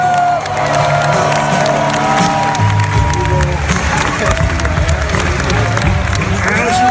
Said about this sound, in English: give her a hand. Give her a support here.